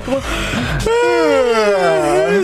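A long, drawn-out, exaggerated human yawn with a sharp intake of breath, then a loud, wavering vocal sigh that rises and falls for about two seconds, theatrical.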